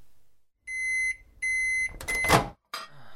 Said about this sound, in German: Er schmeißt die Mikrowelle an.